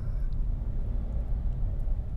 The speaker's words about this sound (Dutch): Ik ben ondertussen aan het autorijden en ik zie dat ik hier naar links mag.